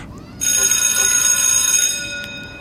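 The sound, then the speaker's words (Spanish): A school bell buzzer that marks entry, exit and recess rings in one loud, sustained burst for about a second and a half, bright, then cuts off leaving a faint background murmur. “La chicharra que marca la entrada, la salida y el recreo.”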